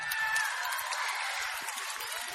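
A steady burst of audience applause, dense clapping that holds at an even level for a couple of seconds without any voices standing out.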